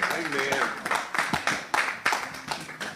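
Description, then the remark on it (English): A standing audience gives the Lord a clap offering, a dense wash of many hands with sharper individual claps popping out every few tenths of a second, while a voice calls out over the applause. “Let's stand to our feet and give the Lord a clap offering.”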